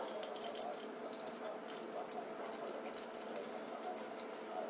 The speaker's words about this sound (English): so I'm done cooking and it seems that I burnt the other side a little. But looks good, smells good. Mm, you can still hear that final sizzle.